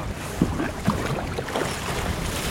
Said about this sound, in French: On essaye de rester un peu comme ça, c'est pas le plus agréable parce que là, le, vent souffle un peu.